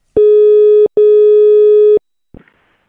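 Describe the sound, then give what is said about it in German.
A steady electronic telephone tone sounds twice as a call is dialed, a short beep then a longer one of about a second, loud and clear with no talking, followed by a brief click as the line picks up. “Hallo, Hat's Telefon schon geklingelt? Ich wähle an und wir haben gleich eine Dame, die sich anonym meldet und weiter verbindet, aber nicht sagt, wohin.”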